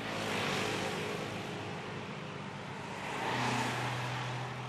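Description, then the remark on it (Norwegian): Steady city street traffic with engines humming as vehicles approach and pass in a couple of swelling waves, the second bringing a lower, louder engine drone, while a police officer checks the number plates of the approaching vehicles. No one speaks. “En politimann stirrer på registreringsnumrene på kjøretøy som nærmer seg.”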